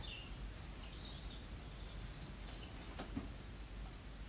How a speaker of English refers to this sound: And sorry, I can hear the birds tweeting because the sun is starting to set and I just got really distracted.